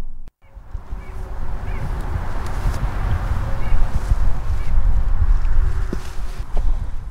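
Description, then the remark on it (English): Faint, scattered bird calls outdoors on a farm in central Minnesota, partly masked by a steady low rumble of road traffic from nearby US Highway 10 that runs through the whole recording. “You can hear a little bit of that traffic and some of the birds in this clip.”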